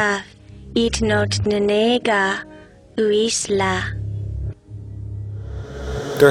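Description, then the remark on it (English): Garbled speech played backwards, with several bursts of voice over a steady low rumble that resembles a car engine, finishing with a rising hiss that swells up abruptly. “Let's listen to the same scene reversed.”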